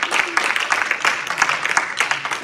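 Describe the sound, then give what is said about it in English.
An audience bursts into loud, sustained applause for the Lord, dense overlapping hand claps filling the whole stretch with steady crackling energy and no pauses. “Go ahead, give the Lord a loud hand clap.”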